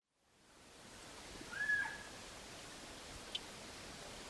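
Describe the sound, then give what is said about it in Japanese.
A single faint, distant call from an Amami Ishikawa's frog, a nocturnal frog, calling just once from deep in the forest on Amami in cloudy weather: a short whistle-like note rising out of steady hissing forest ambience, followed later by a small isolated tick. “夜行性のカエルなん、えー、夜行性なんで夜来たらはっきりとないといけなんです今ちょっと曇り加減になった関係で奥の方で、ちょっとちっちゃかったんです一声だけ鳴いたんですがこれが、え奄美奄美石川ガエル。”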